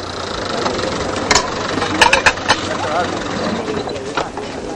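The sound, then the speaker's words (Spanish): A Land Rover arrives and its engine idles with a steady, rumbling drone, while indistinct voices murmur in the background and a few sharp clicks and knocks cut through around the middle. “llega en el Land Rover”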